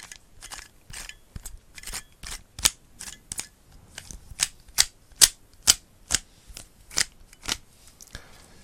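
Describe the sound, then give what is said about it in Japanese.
A bedroom Rubik's cube being twisted over and over for ASMR-style sound, a steady run of sharp plastic clicks and clacks, some louder than others, with no talking. “これはね、ルービックキューブ。寝室用のルービックキューブがね。ここにあるから、これでね、ちょっとこう、音フェチっぽいことね。”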